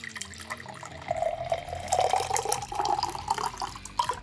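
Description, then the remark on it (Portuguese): Water pours steadily into a glass placed near the microphone, a continuous splashing stream whose pitch gradually rises as the glass fills, with no talking over it. “Deixa eu colocar, deixa eu te servir aqui pertinho, quer ver? Faz um barulhinho aqui, gente, tá.”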